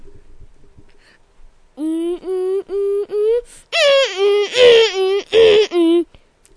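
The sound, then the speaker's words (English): A child vocally imitates the eerie siren-like wail of the creature Siren Head, starting with several short, evenly spaced moaning pulses, then breaking into a louder, harsher, warbling howl that wavers up and down before stopping. “come make the Siren Head sound for people listening”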